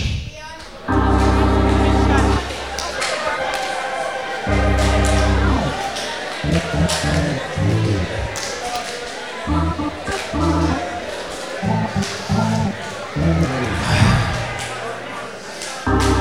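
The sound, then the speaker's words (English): An audience chatters and mingles while scattered hand slaps ring out as people give each other high fives, all under loud, sustained organ-like chords that swell and break off in blocks. “Please help me drop your bags, Bibles, and look for three people to slap a palm burning, blister inducing, eye reddening high five. Tell them we are on a rescue mission.”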